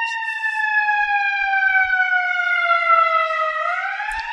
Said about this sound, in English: well, forgive the ambulance.